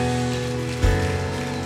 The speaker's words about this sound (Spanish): Recibe este aplauso para ti, Señor.